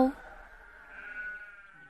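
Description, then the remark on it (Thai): A sheep, one of a flock being brought to water at a well in Midian, bleats in a long, wavering call that lasts nearly two seconds, moderately loud, after a brief sharp knock at the start. “เช้าเนี้ย เรามาเพื่อจะให้น้ำแกะของพ่อเรา”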